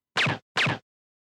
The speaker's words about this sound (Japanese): 胸元から拳銃を取り出した今川は、消音化されたそれで、家政婦の息子の腹と頭部めがけて発砲した。